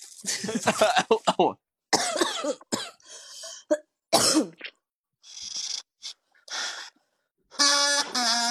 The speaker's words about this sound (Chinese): 咳嗽了。